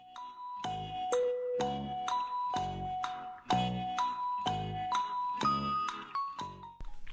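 A doorbell chime rings out a melody of about a dozen bright, ringing tones in steady succession, each struck note sustaining before the next, clear and fairly loud with no voices.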